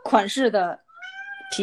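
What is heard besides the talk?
cat meowing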